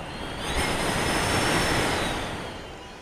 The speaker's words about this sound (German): Und hier hört ihr, wie es draußen stürmt. Und hier ist der Wind an der Esszimmertür.